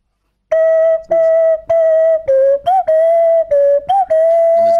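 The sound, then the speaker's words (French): A march melody played by feel, without keys or notes to work, on a clear, whistle-like tone, fairly loud: a steady run of about nine firm notes, mostly on one pitch with brief dips, and no talking. “vous le faites au feeling comme quand vous sifflez quoi. Donc en fait, c'est génial. Voilà. Petite marche impériale.”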